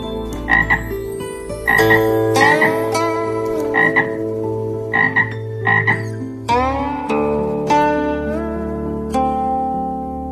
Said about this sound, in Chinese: 有一天，青蛙又站在牌子旁吆喝起来。